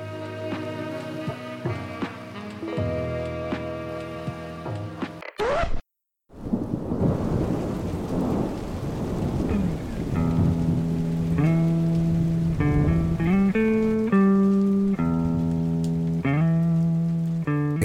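Gentle music gives way to a brief silence, then a thunderstorm rolls in with deep rumbling thunder and steady rain, the melody returning over the continuing storm noise.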